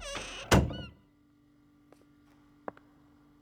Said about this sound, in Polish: Kolejne drzwi zamykają się.